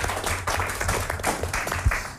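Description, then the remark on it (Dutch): An audience applauds steadily, a dense wash of overlapping hand claps at moderate loudness with a brief sharper accent near the end and no talking over it. “Dankjewel. Applaus.”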